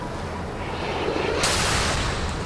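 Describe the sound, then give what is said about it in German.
A steady low rumble gives way to a sudden loud explosive blast about halfway through, its roaring burst sustained to the end, as explosions hit an Iranian oil tanker carrying oil, early in the morning about 50 nautical miles off the Saudi port city of Jeddah. No voices. “als sie von zwei Explosionen getroffen wird.”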